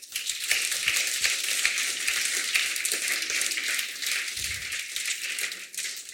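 Audience applause: a steady, dense patter of many hands clapping at once, sustained at an even loudness for several seconds with no voices over it.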